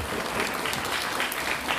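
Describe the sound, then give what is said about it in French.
A crowd applauds steadily, many hands clapping in a dense, continuous wash of sound at an even, moderate loudness with no voices standing out. “On peut applaudir s'il vous plaît”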